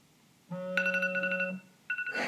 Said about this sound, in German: so, da ist der Timer.